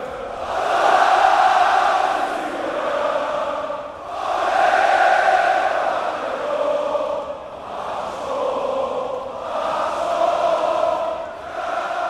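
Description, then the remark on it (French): A large arena crowd at an MMA event sings La Marseillaise together to encourage a French fighter. It is a loud, dense mass of voices rising and falling in long phrases with short dips between them. “Alors quand le sang commence à couler sur son visage, la foule entonne la Marseillaise pour l'encourager, comme s'il s'agissait d'un match de foot ou de rugby.”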